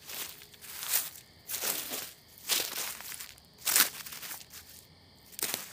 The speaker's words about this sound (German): Der Junge versuchte erstarrt zu verarbeiten, was er gerade erfahren hatte, wodurch er dem gedämpften Scharren, dem Rascheln des Laubes und dem dumpfen Klacken aufeinanderschlagender harter Gegenstände kaum Beachtung schenkte.